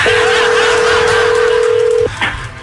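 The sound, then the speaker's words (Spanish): Telephone dialing tones as a call is placed: a steady, mid-pitched dial tone holds unbroken for about two seconds, then cuts off, followed by a brief, higher-pitched blip and a low background hum. “ok, vamos, a la línea, vamos a marcar.”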